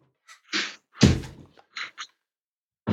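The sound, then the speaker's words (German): A door shuts with a solid, heavy thud, preceded by a couple of brief scraping, rustling sounds and followed by a few light clicks and knocks. No one speaks. “Mach mal bitte die Tür zu.”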